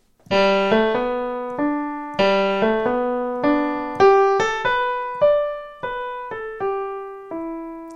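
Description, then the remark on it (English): A solo piano plays a simple waltz melody, one clear note at a time in a gentle lilting rhythm, each note ringing and fading, moderately loud with no voices. “If I played the melody all by itself, it would be this.”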